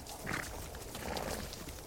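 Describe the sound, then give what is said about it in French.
A herd of about a hundred wild baguales horses in Chile approaches through a park, a steady rumble of many hooves and snorts blending into a continuous, fairly loud outdoor wash of sound with no talking. “Aujourd'hui, certains d'entre eux sont devenus de véritables animaux de compagnie, mais les chevaux baguales du Chili vivent libres. Et regardez les ils arrivent.”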